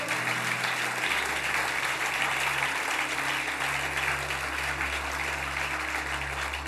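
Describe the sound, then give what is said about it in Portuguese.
An audience in a church service applauds Jesus steadily, dense clapping filling the whole stretch at a fairly constant loudness, with a low hum underneath and no voices standing out. “Aplauda Jesus se você crê nisso.”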